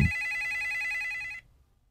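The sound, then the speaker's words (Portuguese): A telephone rings in a rapid, trilling electronic burst lasting over a second, fairly loud, then cuts off abruptly into near silence. No one speaks. “Um, deixa eu voltar aqui pro nosso telefone à espera da sua mensagem.”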